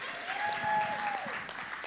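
An audience claps steadily in a dense, even patter, with a single high whistle gliding up, holding, and dropping away partway through. No one speaks.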